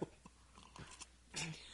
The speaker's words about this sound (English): Oh boy! I'm choking. I'm just coughing. You're choking on your own spit. I just have no air.